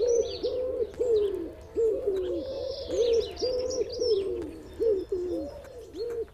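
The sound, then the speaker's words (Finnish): A wood pigeon coos steadily in low, hoarse phrases, roughly a dozen soft notes in a repeating rhythm, while higher chirps and twittering from other birds flicker in the background. “Sepelkyyhky on Euroopan suurin kyyhky.”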